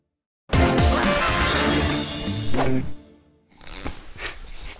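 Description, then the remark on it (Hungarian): Eyeglasses drop and hit the floor with a loud, crunchy clatter and rustle lasting a couple of seconds, then a short pause and more scraping, handling noise. “Leesett a szemüvegem, de inkább ez, mint a vércukrom.”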